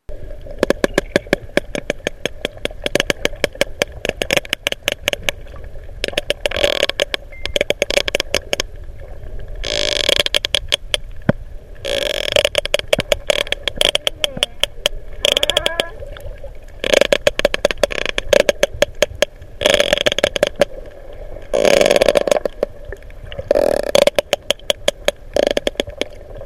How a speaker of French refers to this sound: Et mieux encore, des cachalots en plus grand nombre qui communiquent. écoutons maintenant cette séquence de communication entre cachalots dont étaient extraits les sons précédents.